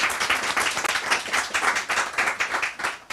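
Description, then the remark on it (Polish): An audience applauds steadily, a dense wash of many overlapping hand claps at even loudness throughout, with no speech over it. “Brawa.”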